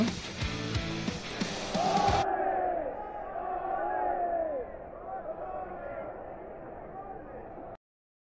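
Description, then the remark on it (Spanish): A large stadium crowd at an international tournament match chants "ole, ole" in unison at their own team, which lost 3-1 to Magallanes; the sung notes rise and fall in waves over a steady roar, loud at first and continuing before cutting off. “Eh, la gente terminó gritándole ole ole a, a su propio equipo.”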